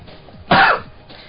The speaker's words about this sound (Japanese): 咳 がひどいな。